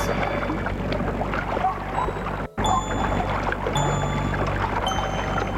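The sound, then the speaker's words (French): Water swishes and laps steadily as a boat's pole cuts through it, a dense continuous splashing with faint high ringing tones above and a brief dropout midway. “Le bruit de l'eau qui fend, fendu par la perche”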